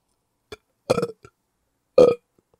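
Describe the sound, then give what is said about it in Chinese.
A voice imitates frantic burping: a short belch, then a longer gurgling one, a tiny hiccup-like blip, and after a pause a final loud, throaty belch. No speech. “就是会这样疯狂打嗝这样。”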